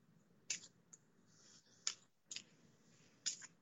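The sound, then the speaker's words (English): Soft papery riffling and snapping of a deck of oracle cards being shuffled, with several crisp bursts at irregular intervals over a quiet background, no talking. “Okay, I'm just shuffling a little bit.”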